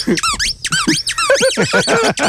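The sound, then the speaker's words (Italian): A squeaky opossum dog toy squeezed over and over in quick, irregular bursts, each a loud, high-pitched squeal with a wavering pitch, sounding on its own with no talking. “È un opossum del mio cane. Ho sentito stamattina che lo stava masticando”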